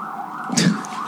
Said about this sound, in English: Here, wait for the siren. Hold for siren.